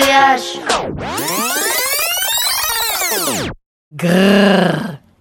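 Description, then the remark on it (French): A voice mimics a grey werewolf's growl: a loud, drawn-out snarling groan that rises and falls in pitch, then a brief pause and another short, rough growl. “C'est quoi ce bruit C'est le grognement du loup-garou gris.”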